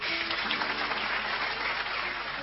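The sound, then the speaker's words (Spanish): A steady patter of applause from a group of people, dense and even throughout without swelling or fading, no voices heard. “se oyen unos aplausos.”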